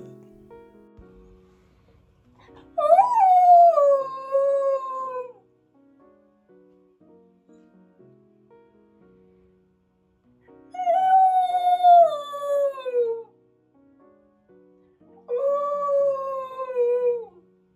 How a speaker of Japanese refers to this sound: えー、東一郎くんのちょっと切ない、切ない遠吠えからお聞きいただきましたけれども、えー、ちょっとね、完全にこんなモードになっちゃいましたね。東一郎くんね。困りました。えー、ちょっと、オンオンオンオン朝から晩から寝てる時以外は大体やってるんで